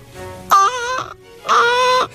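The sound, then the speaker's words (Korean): A veteran comedian imitates a crow, letting out two loud, drawn-out nasal caws about a second apart, each held for roughly half a second, with no other talking. “아 이거는 까마귀잖아 미안합니다.”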